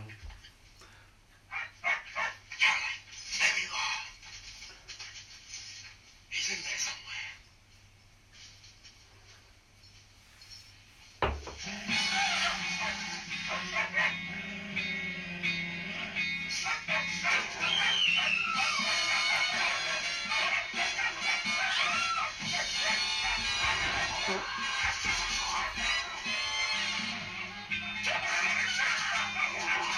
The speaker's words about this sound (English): that's bad. That's just two dogs. Is that werewolf? It's two, two dogs, isn't it? That's pathetic